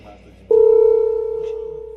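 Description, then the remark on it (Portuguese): A telephone line drops to a dial tone: after a brief quiet moment, a loud, steady electronic hum switches on abruptly and holds unbroken to the end, fading only slightly. “Caiu a ligação.”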